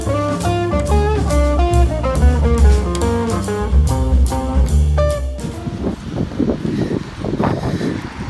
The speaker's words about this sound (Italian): Allora ragazzi, il vento forte continua, prima tappa sono alla Marinella di Quartu Sant'Elena,